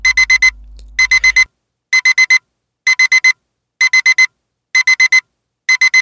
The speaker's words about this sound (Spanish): Y esta alarma que acabáis de escuchar nos avisa que llega el momento de conocer la versión del revés del cuento español titulado El lobo burlado.